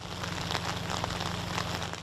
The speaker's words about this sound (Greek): Πολύ βροχή.